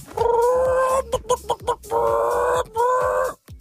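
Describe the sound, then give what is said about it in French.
A person imitates a clucking hen, mixing three drawn-out nasal squawks with a few short, choppy clucks in between. The voice is fairly loud, with no other talking. “Ah, du coup, je fais bien la poule.”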